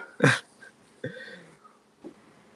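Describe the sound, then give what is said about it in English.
A dog looking out a window growls in a few short, throaty bursts: one loud, harsh outburst, then a drawn-out rumbling snarl and a faint final grumble, with quiet pauses between and no talking. “I think you hear Lobo. I mean, he's looking out the window and he's growling”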